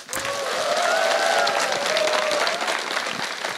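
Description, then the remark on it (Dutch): Loud, sustained applause from a large audience, a dense steady roar of clapping with faint whistles or cheers rising above it, holding strong throughout. “Veel applaus, dat zijn ja, al.”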